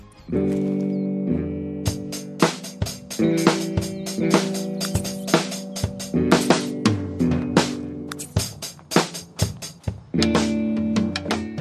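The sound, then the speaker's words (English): A small amateur video game band of two or more level-one players jams together with sustained, shifting chords and frequent, uneven drum hits. The playing sounds loose and clumsy and out of tempo, steady throughout, with no voices. “you can start a jam session in uh, I think Sims three at least and uh, it sounds like …”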